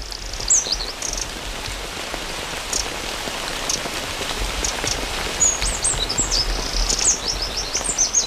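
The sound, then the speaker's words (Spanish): Steady rain patters densely and evenly throughout a downpour, with the scattered high chirps and tweets of a small wren rising above it now and then. No one speaks. “En mi casa estaba lloviendo hace un rato cuando vine pues para Es lo que está sonando en unas.”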